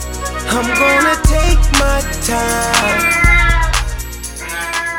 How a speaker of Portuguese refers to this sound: Ela está no cio. E se vocês conhecem a vida animal ou a vida humana, que não deixa de ser de animal, né? Ela estando no cio, ela está com a grande habilidade de ficar urrando o tempo inteiro.